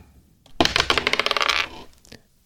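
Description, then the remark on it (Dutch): A single die is thrown in a game and clatters across a hard surface, a quick burst of bright rattling clicks that slows and settles after about a second, landing on 4; fairly loud, with no one talking. “Zo meteen gaat Marianne gooien met de dobbelsteen.”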